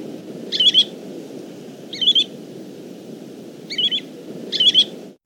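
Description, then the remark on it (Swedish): A plover calls four times, short high whistled notes with evenly stressed syllables, spaced a second or more apart over a steady low rumble of background noise. No one speaks. “Om ta då och lyssna på sånt där äh, mer jämn betoning så, så låter det”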